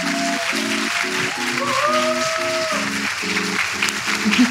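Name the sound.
audience applause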